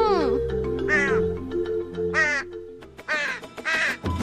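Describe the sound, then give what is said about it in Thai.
A crow caws five times in harsh, rasping calls, spaced unevenly, with the last two close together. They sound fairly loud over a steady low musical drone. “กา กา กาอย่าเอ็ดไป จะรบกวนพ่อครัวกับคนในครัวเขา”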